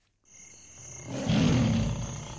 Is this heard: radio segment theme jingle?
no